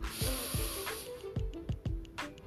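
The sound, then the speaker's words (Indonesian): A deep breath drawn in and let out, demonstrating a breathing technique for self-healing, a steady airy rushing hiss with a few soft clicks and bumps, no talking. “Sebenarnya ini cuma nafas normalnya kita, cuman kita ini sudah terbiasa yang namanya kalau diinstruksiin suruh tarik nafas pasti nafasnya pakai nafas dada dadanya langsung naik”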